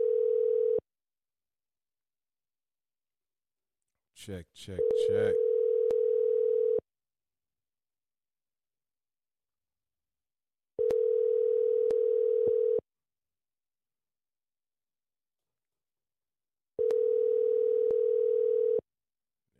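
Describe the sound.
An outgoing phone call to a show's guest rings out: steady, fairly loud electronic ringback tones lasting about two seconds each, separated by even pauses of silence, with a short burst of a man's voice early on.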